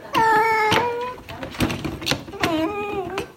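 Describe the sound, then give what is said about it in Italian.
A cat with conjunctivitis, put in a pet carrier to be taken to the vet, lets out two drawn-out, wailing meows separated by a short pause, with sharp knocks and rattles from the carrier in between. “uno dei miei due gatti, ha la congiuntivite, quindi l'ho messo nel trasportino per portarlo dal veterinario.”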